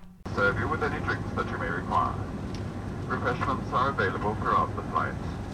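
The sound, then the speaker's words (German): A steady, low jet engine roar of a Lufthansa airplane in flight to New York, droning continuously at moderate loudness beneath a person talking throughout. “Am nächsten Tag flogen wir um 8.40 Uhr mit Lufthansa nach New York.”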